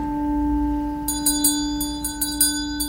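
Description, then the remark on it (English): A ring of eight church bells at Aldgate in the City pealing, their sustained ringing tones overlapping as a quick, uneven run of fresh strikes joins in partway through, bright. “Here is a short extract from the Ring Ring Bell soundscape. Aldgate in the city. A ring of eight.”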